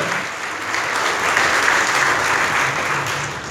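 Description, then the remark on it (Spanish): An audience applauds the Lord together during a morning service, a steady wash of many hands clapping at even loudness for a few seconds, with no voices standing out above it. “Dele el aplauso al Señor, por favor, esta mañana.”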